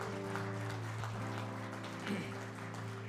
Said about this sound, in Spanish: Dar un aplauso a Cristo esta tarde.